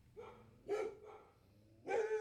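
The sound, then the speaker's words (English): A dog barks repeatedly, with several sharp yappy barks spaced irregularly; the loudest ones come around the start, middle and end, with no talking over them. “I'm about to kill the dog live.”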